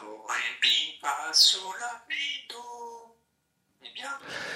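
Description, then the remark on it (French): A parrot squawks and mimics in a rapid run of harsh, voice-like calls, then falls silent for a moment before another burst. “Parmi les oiseaux dont les talents d'imitateur sont les plus extraordinaires, il y a bien sûr les perroquets.”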